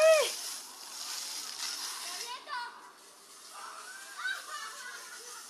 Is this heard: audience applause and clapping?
no